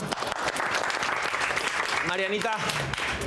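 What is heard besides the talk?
applause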